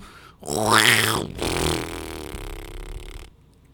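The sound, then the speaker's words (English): A loud, wet fart sound effect: a sputtering, buzzy blast followed by a longer, rattling, moist trail that fades out after about three seconds, heard on its own without talking. “Oh, someone did the fart sound.”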